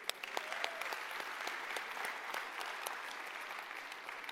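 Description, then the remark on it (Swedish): Steady applause from an audience during a sermon, a dense patter of many hands clapping at an even, moderate level throughout, with sharp individual claps standing out now and then. “Tack snälla, en applåd.”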